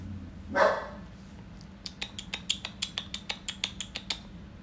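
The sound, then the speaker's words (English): A dog named Riley lets out one sharp bark, then a quick, steady run of short, clipped yips or clicks follows over a low background hum with no talking. “That's that's my dog.”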